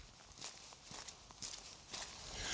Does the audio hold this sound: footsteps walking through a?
yes